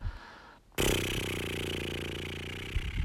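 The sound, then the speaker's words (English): A single sustained lip trill, air sent through the lips to make them flutter with a voiced, motor-like buzz like a horse's snort. It starts abruptly after a brief pause and runs steadily for about two seconds, fairly loud. “Just see what it would be to blow those little bubbles by sending air through your lips and letting them flutter like a little horse sound.”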